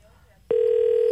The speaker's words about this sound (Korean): 자, 여의도 야채가게에 지금 전화가 좀 걸리는 것 같은데요. 다시 한번 급하게 하신 것 같습니다.